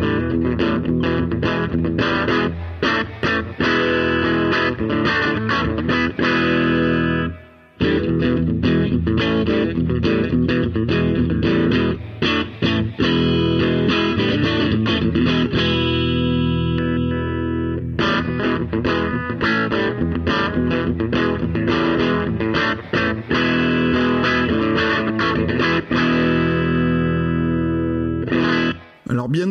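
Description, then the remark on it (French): Heavily distorted electric guitar riffs, picked hard and aggressively with a pick, played loud straight into a V-Twin with only a little reverb, with driving chugging rhythms and brief pauses between phrases. “je vous refais encore quelques riffs hum, cette fois en mode un petit peu plus bourrin avec le avec le médiator.”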